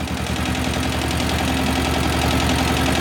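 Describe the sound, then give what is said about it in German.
A tractor engine idles steadily, a low rhythmic chugging with a constant hum and slight knocking, loud and unbroken throughout with no voices. “Ja, das ist so ein Traktor, der äh, genauso einen, wie ich hier im Podcast immer am liebsten vorstelle, der einen schönen Klang hat, wo man wirklich so denkt, ja, so muss ein Traktor klingen.”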